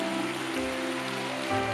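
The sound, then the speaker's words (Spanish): A crowd applauds with steady, dense clapping for under two seconds, a low sustained hum running beneath it. The clapping swells slightly louder near the end. “Me estoy oyendo el aplauso pero no saben aplaudir.”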